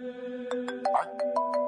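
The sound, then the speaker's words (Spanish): An iPhone 10 smartphone ringtone plays on its own, a bright melodic tune of repeated chiming notes over a steady tonal hum, at moderate volume. “¿Para dónde aboté el teléfono? Lo bueno es que es el iPhone 10 y me ubica la carita.”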